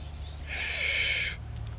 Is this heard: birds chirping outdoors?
yes